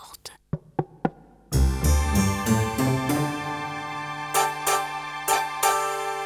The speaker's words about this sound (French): Puis on frappa doucement à la porte.